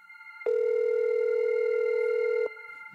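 A telephone dial tone hums steadily for about two seconds, loud and continuous with no breaks, then cuts off abruptly, leaving only faint background noise.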